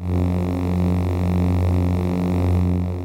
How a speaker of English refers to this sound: here's the humming loop Marshall made